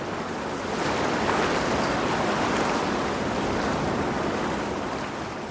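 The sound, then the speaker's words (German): Steady rushing water heard from a ferry crossing from Manhattan to Staten Island, a broad continuous wash of churning waves with a faint wind rumble, fairly loud, no voices. “wie sich da anhört, wenn man mit der Fähre von Manhattan, von dieser Lautstärke, die ich dir vorhin gezeigt habe, mit die Fähre nimmt”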